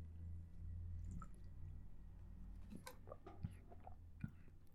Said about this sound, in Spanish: Ah, procedo a tomar agua. Perdónenme.